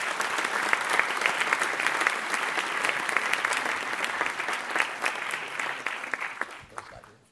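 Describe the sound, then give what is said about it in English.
An audience claps steadily to welcome speakers to the stage: a dense wash of overlapping hand claps that holds even for several seconds before tapering off near the end. “And now, please do join me in welcoming our speakers to the stage.”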